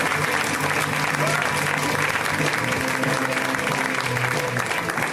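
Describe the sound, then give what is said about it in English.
An audience at a comedy show claps steadily and loudly for several seconds as comedian John Roy is introduced, a dense, even wash of applause with faint voices mixed underneath. “Guys, give it up for John. Come on.”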